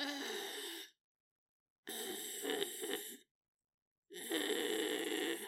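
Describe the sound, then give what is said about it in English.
A voice imitates the open-mouthed breathing of Tucker, a cat, as heavy panting in three raspy, breathy bursts separated by short silences, fairly loud, like labored breathing. “And to make matters worse, Tucker starts doing this weird thing where he breathes with his mouth open.”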